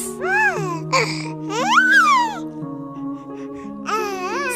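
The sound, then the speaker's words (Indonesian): A baby babbles and cries in short, rising wails with breaks between them, close and fairly loud over a steady low musical drone. “Ternyata Isinya adalah seorang bayi yang sangat cantik jelita.”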